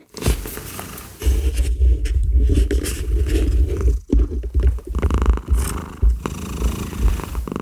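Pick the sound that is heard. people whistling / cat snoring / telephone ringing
cat snoring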